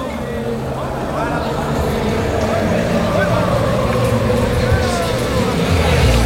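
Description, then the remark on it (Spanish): A large crowd of Sevilla football fans sings the Sevilla club anthem together in Dos Hermanas, Spain, before extra time of a match, a dense, steady wall of many voices with a wavering melody carrying throughout, loud and continuous from start to finish. “eh, la segunda eh, con susos se han venido todos arriba y ahora cantan el himno del Sevilla.”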